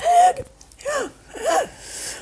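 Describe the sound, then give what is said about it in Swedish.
A voice mimics labored, wheezing breaths, three strained gasps with raspy, whistling tones, fairly loud, imitating the shortness of breath of a severe allergic reaction. “Och då började jag känna att jag hade andnöd.”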